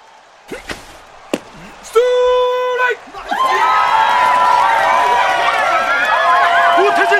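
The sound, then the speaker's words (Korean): A few sharp thuds and a brief horn-like blare give way to a large baseball stadium crowd of Eagles fans cheering and shouting for a pitcher as he throws again, loud and sustained for several seconds. “우태진 선수, 이글스 팬들의 환호를 받으며 다시 공을 던지고 있습니다.”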